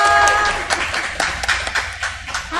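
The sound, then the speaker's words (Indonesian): A short burst of applause from a small group welcoming a guest, dense clapping that starts loud and thins into scattered, uneven claps over a couple of seconds. “Tepuk”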